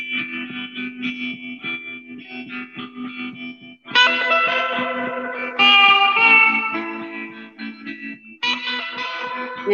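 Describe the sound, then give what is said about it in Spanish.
An electric guitar with a wah-wah effect plays sustained, distorted notes in loud bursts, with a brighter, fuller phrase kicking in midway and again near the end; no one speaks. “La guitarra y guaguá. Sí, el guaguá.”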